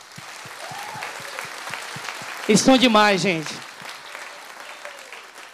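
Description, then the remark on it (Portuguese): An audience claps steadily in a sustained round of applause for the speaker's father and mother, a dense crackle of many hands that runs the whole time, with a woman's voice briefly speaking loudly over it midway. “E gostaria, como presente para mim, vocês aplaudissem o nome deles.”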